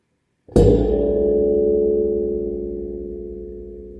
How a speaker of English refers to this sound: you have a gong there? oh. yeah, there you go.